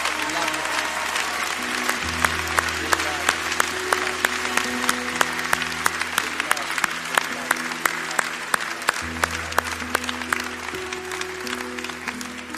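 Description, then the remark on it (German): An audience at a morning church service applauds God steadily for about twelve seconds, dense clapping throughout while sustained low instrumental tones play underneath. “können wir ihm nochmal einen Applaus geben heute Morgen.”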